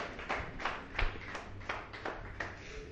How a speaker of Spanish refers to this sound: Gloria a Dios, denle un fuerte aplauso allá al Señor, hermanos.